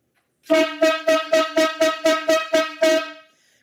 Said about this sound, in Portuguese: Corneta aleatória chegando no episódio do VAR.